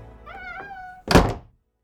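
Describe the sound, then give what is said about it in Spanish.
A door slams shut with one loud, heavy thud that dies away quickly, just after a brief high, wavering creak-like tone. No one speaks. “Las hadas retrocedieron a Sician y la puerta se cerró de golpe.”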